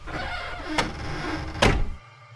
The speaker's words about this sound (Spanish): mi abuelita de la impresión dejó caer su juguete y de manera alebrestada cerró la puerta en su cara.